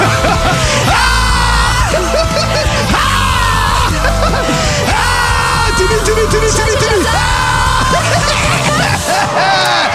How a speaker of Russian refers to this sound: Для отличного настроения у нас есть крикотерапия. Давайте прокричим все плохое и хорошее.